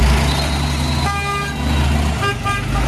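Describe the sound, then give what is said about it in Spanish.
Busy street traffic in the northern Gaza Strip as civilians load what they can into cars to evacuate south, with a steady engine rumble and several car horns honking, one long blare followed by shorter toots, loud against the constant road noise. “Este es el vídeo que ha publicado el New York Times en el que se ve gente cargando lo que puede en coches para huir de esa zona”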